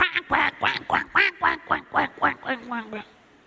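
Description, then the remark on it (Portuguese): A voice imitates Donald Duck, letting out a rapid string of about a dozen nasal, raspy quacks in a steady rhythm, fairly loud, trailing off at the end. “Você se lembra o pato Donald?”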